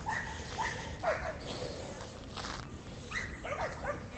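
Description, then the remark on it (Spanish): A dog named Jagger barks and whimpers in short, high-pitched bursts, yips and whines scattered across a few seconds against a low background rumble, with no one speaking. “Debe estar hasta los cojones el perro.”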